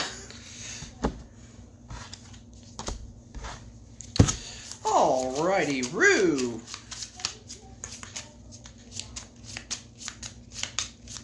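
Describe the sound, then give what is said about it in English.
A deck of cards being shuffled during a card game, a steady run of quick crisp riffles and taps, with a person briefly speaking partway through over a low background hum. “I shuffled.”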